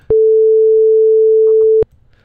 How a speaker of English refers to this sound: So yeah, it kind of sounds like the testing frequency on a TV. That's a sound wave.